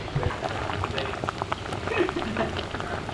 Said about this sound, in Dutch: Eh, wat, wat, gebeurt hier? Eh, we zijn even een paar braadworst aan het bakken.